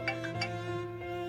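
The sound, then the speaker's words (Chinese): A phone rings with a steady electronic tone and a few quick, bright chirps near the start, an incoming call that was a wrong number. It sounds fairly soft, and no one speaks over it. “啊，不好意思，刚刚有一只电话，人家打错脱了。”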